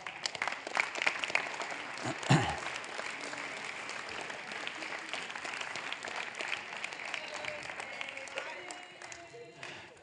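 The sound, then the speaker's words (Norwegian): Steady audience applause for a woman being introduced to the audience fills the whole stretch, a dense crackle of many hands clapping at even loudness, with a brief throat-clearing sound partway through and a slight fade at the end. “vi må gi henne en skikkelig klapp.”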